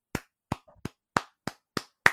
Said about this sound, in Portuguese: Não sei se deu para escutar, caro ouvinte, mas se é só aplausos pro menino de Paracuru.